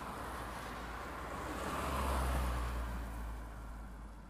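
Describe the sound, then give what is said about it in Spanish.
A single car passes in front of a house, its broad rumbling whoosh swelling to a peak midway and then fading away, with no voices present. “Y ocasionalmente, un auto pasaba frente a la casa.”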